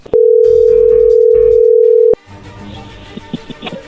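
telephone dial tone

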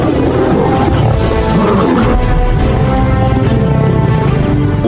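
lion roaring

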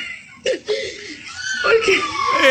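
person crying and whimpering

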